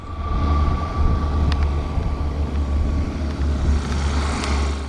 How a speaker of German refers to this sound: Zack, Touchdown. Ja, also das ist ein Wasserstoffflugzeug. 2019. Es ist experimentell und hat 20, also man kann es mit 20 Sitzen ausstatten und 500 Meilen weit fliegen.